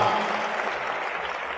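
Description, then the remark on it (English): An audience applauds for a list of nations just read out, such as Bahamas, Barbados and Bermuda: a dense, steady wash of many hands clapping at once, sustained at an even loudness throughout with no voices standing out. “Clap for the nations.”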